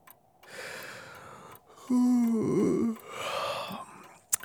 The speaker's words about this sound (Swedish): Hon sträcker på sig och gäspar och gnuggar sig trött i ögonen. Hon sätter sig på sängkanten med händerna i pannan.